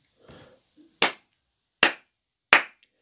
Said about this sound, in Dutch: Eh, drie keer in de handen klappen, mevrouw. Doet u mee?